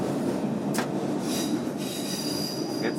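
An S-Bahn train rumbles steadily through an enclosed tunnel, passing under the U2 line on a stretch with many curves and gradients, heading toward Potsdamer Platz station; a dense low roar with brief high metallic wheel squeals flaring up now and then. No voices, just continuous rail noise throughout.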